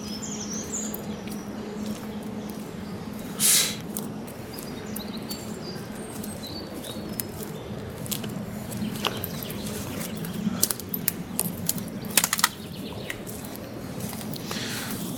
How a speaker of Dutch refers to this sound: we lopen dus nu door een, over een soort van tapijt van speenkruid.